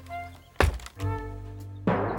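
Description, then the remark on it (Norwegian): A ladder is set against a cave wall with a solid, hollow thunk, followed a moment later by a second, softer knock as it settles, over a low steady hum. “setter en stige inntil huleveggen og klatrer opp.”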